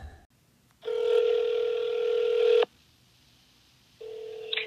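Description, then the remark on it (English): A telephone ringing tone heard down the line on a call to a pastry shop: one long steady electronic ring, a pause of silence, then a second ring beginning. Fairly clear, with no voices. “Here is my phone call from earlier today.”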